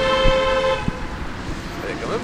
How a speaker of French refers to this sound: vous avez des fans, hein non, des fois c'est parce qu'ils savent pas trop rouler aussi. Il y a peut-être de la klaxon aussi.